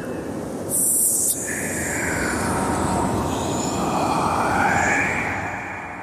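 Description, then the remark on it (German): A dense, roaring sandstorm wind rushes steadily and loudly for several seconds, with faint whistling tones rising and falling inside the roar and a brief hiss near the start. No voices. “Das Brausen des Sandsturms erstickt jeden Ruf.”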